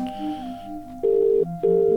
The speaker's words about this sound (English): Same ringtone for Australia. Interesting. Is he going to be there?